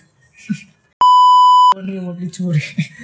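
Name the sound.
censor beep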